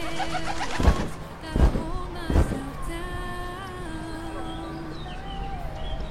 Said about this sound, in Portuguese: Você quer jogar? Não, obrigado. Estou alimentando os pombos.